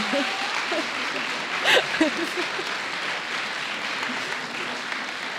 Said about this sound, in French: Donc je pense, je pense qu'on peut les applaudir, non